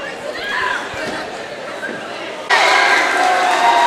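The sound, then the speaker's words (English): Crowd chatter and cheering from a cheering section at a game, a steady roar of many voices that swells suddenly louder partway through, dense with no distinct words. “filming the uh, Fowler cheering section.”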